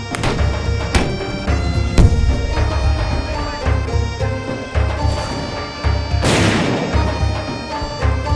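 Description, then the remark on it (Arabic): Stones from Saladin's catapults (mangonels) slam into the walls of a fortress in a few loud, booming crashes, one especially heavy, over lively music with a steady pounding drum beat. “لن نترك لمداعبات صلاح الدين أن تفسد علينا حفلنا ولنعتبر مجانيقه جزءا من الإيقاع ليس أكثر”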